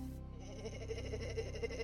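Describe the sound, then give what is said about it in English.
A singing voice holds one note with a fast, fluttering vibrato that wobbles like a sheep's bleat, steady for about two seconds, with no other sounds. “Number one, a vibrato that sounds like a sheep.”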